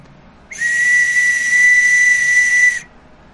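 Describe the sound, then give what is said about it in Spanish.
A single prolonged distress whistle blast, shrill, steady and loud, lasts a little over two seconds, then cuts off abruptly. A prolonged blast on this whistle signals a call for help; it is also used to clear the way when many people are running. No one speaks. “Este es un silbato de auxilio que lo ocupamos solo precisamente en auxilio y para abrir paso cuando habemos, este, hay bastantes corriendo allá arriba”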